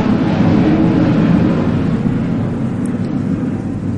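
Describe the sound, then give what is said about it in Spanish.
A loud, steady roar of jet airplanes passing overhead near Barajas in the Community of Madrid, including the 10:45 plane, fills the whole recording, a broad rumbling wash heavy in the low end that holds constant without fading. “Justo están pasando unos aviones, disculpad.”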